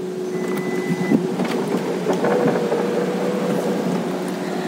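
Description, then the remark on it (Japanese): The power door of a Toyota Alphard Executive Lounge runs open on its motor after its one-touch seesaw switch is pressed, a steady mechanical whir with a low hum lasting several seconds, starting with a faint click, with no voices. “ここドアのところに行きますとですねワンタッチシーソースイッチっていうのがついておりまして普通にドアの取っ手を引っ張ってもいつも通り開くんですけどなんかボタンで右左みたいな感じの矢印が出てるので押してみます”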